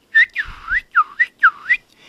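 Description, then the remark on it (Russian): A person whistles a quick trill imitating a nightingale, a series of swooping up-and-down notes in close succession, clear, with no talking. “В ответ он начинает чирикать,”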